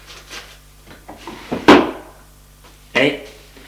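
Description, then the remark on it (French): A police commissioner pulls a drawer open to take out two letters, with a sharp wooden knock and rattle, followed a moment later by a second, slightly softer bump. Faint murmuring voices sit underneath. “Il ouvre le tiroir et en sort les deux lettres.”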